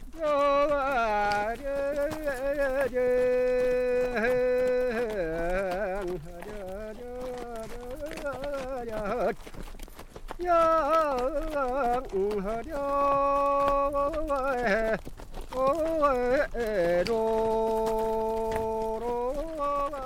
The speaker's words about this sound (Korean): 우리의 소리를 찾아서 제주도의 조랑말때 몰고 가는 소리입니다.